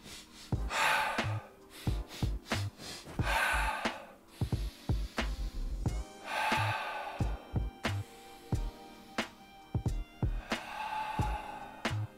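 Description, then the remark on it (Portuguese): A person demonstrates recovery breathing, standing still and panting heavily as if still running, rough breathy gusts coming in quick succession with short pauses between them, the pace gradually slowing down as the breaths continue. “Você vai ter que meio que acompanhar o corpo na respiração.”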